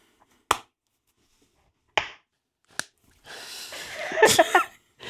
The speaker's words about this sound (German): Wir haben wieder schön geklatscht. Wir kriegen es jede Woche hin.